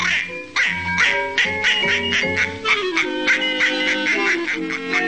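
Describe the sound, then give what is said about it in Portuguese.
An old duck quacks loudly and rapidly, a near-continuous string of nasal, honking quacks as it is passed through a fountain, with no one talking over them. “Veja este mísero e envelhecido pato. Agora eu faço ele passar pela fonte e.”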